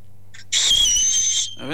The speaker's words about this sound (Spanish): Nuestra boca, si la hacemos pequeñita, o sea, cerramos la mandíbula y avanzamos la lengua, se nos queda una cavidad muy pequeñita y sale un silbo muy agudo, como esto.